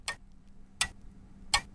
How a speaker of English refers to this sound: It's it's simple. It's a clock. You just have to say what you hear. It's a clock.